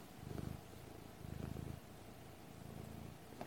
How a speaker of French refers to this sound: Euh, mes passions, c'est mon chat. Il ronronne.